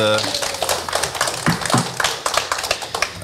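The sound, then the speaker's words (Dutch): A short burst of applause for a man being called in to join, with several pairs of hands clapping in a quick, uneven patter for about three seconds, moderately loud, with some voices murmuring underneath. “En jullie mogen hem een applaus geven, jongens”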